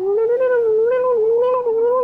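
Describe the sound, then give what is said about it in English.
Underwater song of a bearded seal: a loud, continuous warbling tone with rich harmonics, its pitch rising and dipping in quick undulations throughout, heard alone with no talking. “And then there's the bearded seals who are singing almost like sort of like pop singers, you know, they're like”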